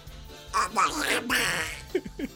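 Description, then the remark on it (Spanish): A person imitates the cartoon duck Donald Duck, making a raspy, sputtering, garbled squawk in a few loud bursts, then trails off into short lower vocal sounds. “¡Le voy a imitar al pato Donald de vuelta!”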